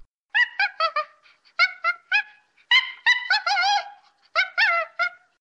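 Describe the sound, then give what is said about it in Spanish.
Chimpanzee vocalizations: bursts of short, high-pitched hooting calls in quick groups, some stretching into wavering squeals, clear with no talking. “Por ejemplo, un chimpancé puede hacer estos sonidos.”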